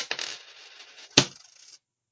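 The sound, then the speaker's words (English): A penny is flipped with a light metallic ping, then lands with a sharp clink and rattles briefly before settling. Fairly quiet, with no voices. “Do you want a coin to flip?”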